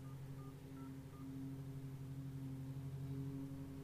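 Short, evenly spaced touch-tone beeps from a phone keypad being dialed, a few quick tones over a steady low mechanical hum, fairly faint, with no talking.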